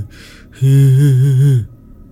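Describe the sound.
A voice imitates a ghostly moan heard beside a sleeping woman's ear on her bed: a short breathy intake, then one loud, sustained wavering 'hooo' lasting about a second before fading into quiet.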